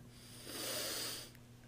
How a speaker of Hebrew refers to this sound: אה, נשימה עמוקה, תנשום, תירגע. למה אומרים לבן אדם תירגע, תנשום?